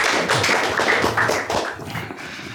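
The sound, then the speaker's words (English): An audience at a hookah industry talk in Prague applauds. A dense, steady patter of many hands clapping at once, fairly loud and continuous throughout, eases slightly toward the end, with no voices over it. “I won't be easy on you, so no clapping will help.”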